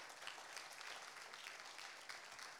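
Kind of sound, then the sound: crowd, audience clapping hands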